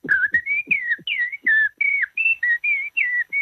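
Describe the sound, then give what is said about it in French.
A person whistles an imitation of a blackbird's song: a quick, steady run of about a dozen short, fluty warbling phrases, mid-to-high pitched and fairly loud, with no talking. “Par contre, si vous me dites euh, essayez d'imiter un merle noir, bah, ce sera plus simple.”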